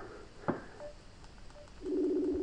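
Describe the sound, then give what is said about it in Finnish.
A short electronic tone sequence like phone dialing an outgoing call to Kenya, with a brief click, then a steady ringback tone starting near the end. Moderately quiet, with no talking. “puhelun päälle, niin katsotaan miten käy.”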